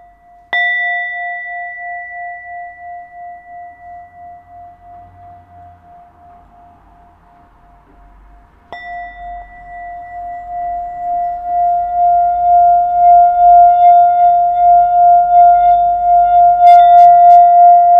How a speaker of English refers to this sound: So right now I'm going to play us some solar plexus chakra singing bell frequencies.